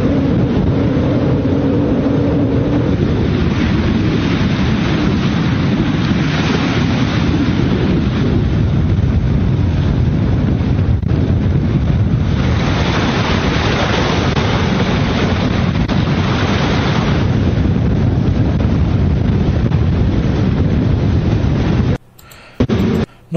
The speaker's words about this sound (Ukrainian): Катери.